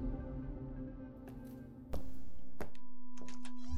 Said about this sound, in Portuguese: Enquanto vocês estavam ali conversando, você escuta algumas batidinhas na porta. Eu vou até a porta.